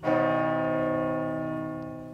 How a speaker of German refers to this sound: Der Sieg von Ampfing in Oberbayern, zu dessen Gedenken die Glocke gegossen wurde, brachte König Ludwig dem Bayern schließlich den Kaisertitel.